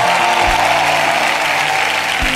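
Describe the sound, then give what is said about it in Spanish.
An audience applauding the Lord steadily, a dense, continuous wash of many hands clapping at an even, loud level, with faint low tones sustained beneath and no speech. “Una es el aplauso, apláudale al Señor.”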